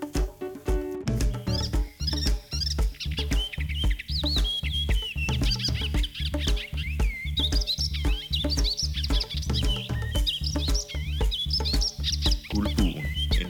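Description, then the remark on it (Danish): An icterine warbler sings a fast, varied stream of high chattering and whistled phrases, continuous, over a steady rhythmic backing of low pulsing music. “Nu kommer guldbuen.”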